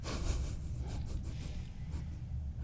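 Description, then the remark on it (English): Several quick, crisp swishes of a letter opener blade slicing through paper, coming in a loose series over a low background rumble, quiet. “I like to hear that zipping through the paper sound that the blade makes.”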